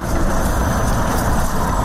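A large vehicle's engine rumbles steadily, a constant low drone with traffic hiss on top, like a half-empty city bus or trolleybus in Kyiv idling or crawling rather than passing.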